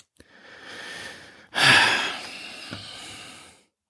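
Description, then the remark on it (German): Heavy breathing from a person breathing heavily out of disappointment: one long, airy intake followed by a louder, forceful exhale that slowly fades, with no talking. “Ja, ich atme schwer.”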